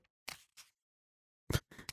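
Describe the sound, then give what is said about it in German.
Thin, bible-paper pages of a poetry anthology rustle in a handful of quick, crisp papery bursts, two early and a cluster near the end, with quiet gaps between and no voices. “die Raschelseite, ihr gehört es, oder?”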